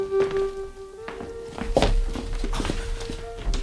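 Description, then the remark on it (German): A hotel room door opens with a long, steady creaking whine, broken by several dull thunks and knocks as it swings, with no one speaking. “Dann endlich öffnete sich die Tür.”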